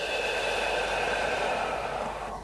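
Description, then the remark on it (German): A long, deep exhale, a steady breathy rush lasting a couple of seconds before tapering off, with no talking; the first deep breath of a guided relaxation breathing exercise. “Und wieder aus.”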